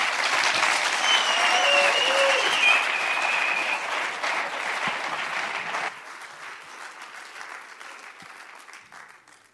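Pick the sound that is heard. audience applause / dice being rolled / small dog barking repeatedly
audience applause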